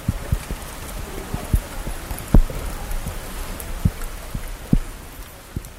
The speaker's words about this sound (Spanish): En Madrid llovió mucho esos días. Esto, por ejemplo, son gotas de lluvia cayendo sobre los botones de mi grabadora.